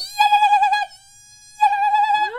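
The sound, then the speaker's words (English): A voice imitates a quiet, high-pitched whooping whine like a mosquito, in two wavering bursts separated by a short pause, the second ending in a rising upward swoop. “So I sort of a like it sounds a little like a mosquito”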